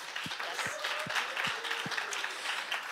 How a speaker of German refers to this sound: Können wir einfach mal einen Applaus geben